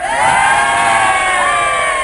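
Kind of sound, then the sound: crowd, audience applause and cheering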